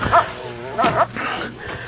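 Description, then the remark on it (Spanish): A dog named Tigre gives a few short, sharp yips and barks mixed with high whimpering whines, in quick bursts over about two seconds, fairly loud with some background noise. “Eh, el, perro. Pero me conoce.”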